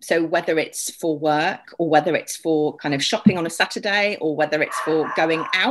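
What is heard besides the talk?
dog barking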